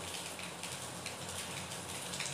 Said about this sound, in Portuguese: tava chovendo uma chuva muito gostosa, sabe? Uma chuva assim muito Tumblr. Tá uma chuva bem Tumblr, não vou mentir.